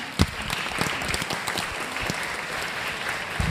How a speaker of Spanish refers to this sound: Un aplauso.